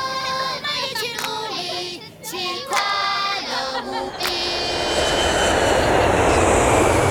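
A steady, loud rushing drone of a passenger airplane engine in flight to Philadelphia, USA, with a tonal melody over it for the first few seconds before the engine noise fills the rest.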